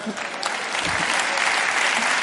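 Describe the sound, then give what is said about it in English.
An audience claps together on cue in a call-and-response exercise, a sustained burst of applause, dense and steady for a couple of seconds, with a faint murmur of voices mixed underneath. “So when I say clap, you shout out your name, and when I say name, you clap.”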